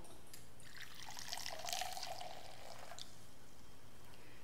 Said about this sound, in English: And then when supper was over, he took a cup and he filled it with wine.